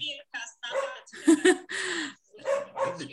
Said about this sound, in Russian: А у меня тут собака даже активизировалась от такой оказии.